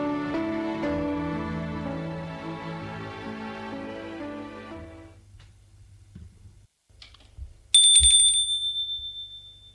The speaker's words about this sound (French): Il a sonné à la porte. La porte s'est ouverte, c'est son père.